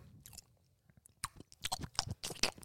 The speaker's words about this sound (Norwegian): Mm, tygger de? Nå tygger de. Ja, tygger nå.